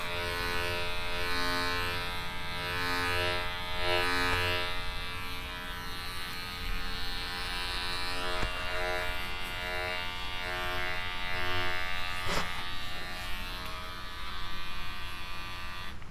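A steady electric hair trimmer buzzes continuously, its motor drone holding a constant pitch with slight variations as it moves, with no voices present.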